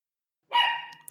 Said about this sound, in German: Da, bellt auch mein Hund zur Zustimmung. Ja, da haben wir, also, ihr habt alle Unrecht. Ihr habt gerade die ehrlichsten Worte der Welt im Hintergrund gehört. Genau. der Hund hat recht.